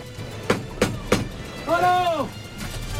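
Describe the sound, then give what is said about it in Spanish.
Three sharp metallic clunks in quick succession, then a drawn-out, rising-and-falling creak as the bull-pen gate (toriles) of a bullring swings open on old hinges to release a bull, over a low background hum. “Oímos la puerta de Toriles, que se abre para dar suelta a este toro del puerto de San Lorenzo,”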